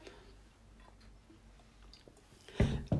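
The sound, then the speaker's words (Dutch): Someone takes a sip of a drink: soft, faint mouth clicks and slurping, then a louder brief gulp or clunk near the end. No one speaks. “Even een slokje drinken.”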